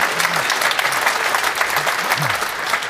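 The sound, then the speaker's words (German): An audience claps steadily for about three seconds, a dense, even patter of many hands with no breaks, while faint low murmurs rise briefly underneath. “Ja, es darf geklatscht werden, ist gar kein Problem.”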